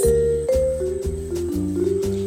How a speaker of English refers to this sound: When the bell rang, Miss Ali entered the class.